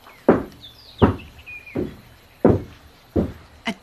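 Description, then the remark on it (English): Heavy stomping footsteps of a giant walking through the bushveld: six deep booming thuds land at a slow, steady pace, loud, with faint bird chirps twittering in the background. “giant was stomping through the bushveld.”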